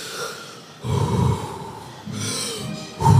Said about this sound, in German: Äh, so, das ist ja so ein bisschen kontrolliertes Überventilieren. Also mhm. du atmest ohne Pause tief ein und aus, so.